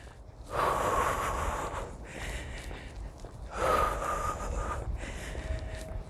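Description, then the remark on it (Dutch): Slow, deliberate breathing during a guided breathing exercise: two long airy breaths that swell and fade over several seconds each, with no talking. “Probeer nu een langzamere ademhaling.”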